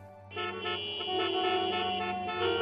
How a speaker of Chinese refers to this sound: 一片的鸣笛催促声刺耳烦乱。